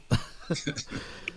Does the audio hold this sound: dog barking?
no